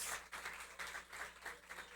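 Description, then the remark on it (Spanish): A crowd applauds steadily to honor the fathers present, a dense wash of many hands clapping together in irregular bursts, fairly loud and continuous with no talking over it. “Vamos a darle un aplauso, vamos a reconocerlos a ellos.”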